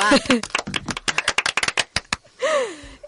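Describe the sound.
A short burst of scattered applause, sharp irregular claps lasting about two seconds, with laughter and voices before the clapping begins and again once it fades.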